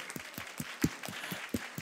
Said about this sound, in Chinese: 如果是这样子，我们拍手给神好不好？欢喜一点的拍手，